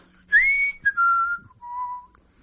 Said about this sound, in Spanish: muy contento, chiflando y casi bailando